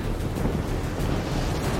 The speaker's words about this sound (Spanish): Las olas comenzaron a surgir de las profundidades con una fuerza descomunal e inimaginable.